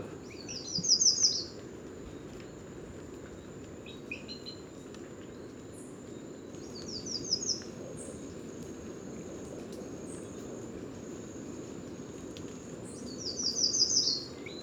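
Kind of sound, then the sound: bird, yellow warbler singing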